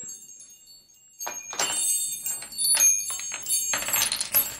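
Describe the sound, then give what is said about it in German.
A small handbell rings in several quick, uneven bursts of bright jingling, fairly loud, with no voices over it. “Und jetzt wollen wir wieder das Glöckchen klingeln.”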